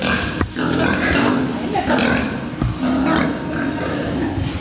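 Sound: pigs grunting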